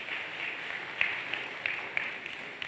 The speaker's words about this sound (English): Let's clap for Jesus. Thank you, choir.